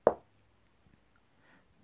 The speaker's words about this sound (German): Da klopft es an meine Zimmertür.